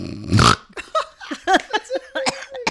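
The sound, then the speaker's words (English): A person imitates a snore with one loud, rough snort, a short burst near the start. It is followed by a string of quick, squeaky vocal sounds, like stifled laughter. “snore snap. Snore snap yep.”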